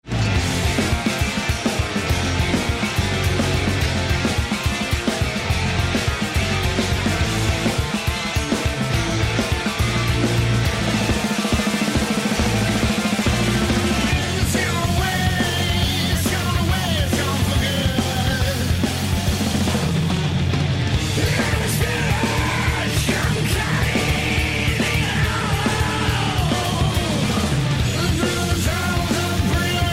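A heavy metal song plays loud and dense throughout, with driving distorted guitars layered over synthesizers, pounding drums and a thick low end, and no talking.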